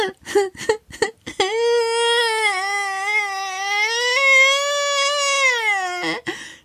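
A child bawls: a few short, choppy sobs, then one long, loud, high-pitched wail that wavers for several seconds before breaking off with a final gasp. No talking.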